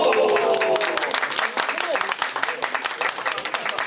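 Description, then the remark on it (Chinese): A crowd in Yamagata City, Japan, breaks into loud applause the moment results are announced naming the city the national top spender on ramen for a second straight year. Many hands clap in a dense, rapid patter, with a murmur of voices and some cheering mixed in, steady for about four seconds. “结果公布的那一刻，现场立刻响起掌声。”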